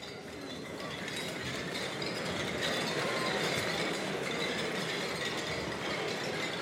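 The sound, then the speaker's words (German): Glasses clink over and over in a toast, a steady, dense jangle that fills the whole stretch at an even level, with no voices on top. “Also, Hubert, einmal mehr auf dich, Prost beieinander.”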